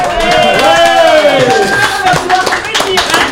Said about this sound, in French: J'aimerais surtout qu'on fasse un tonnerre d'applaudissements à notre invité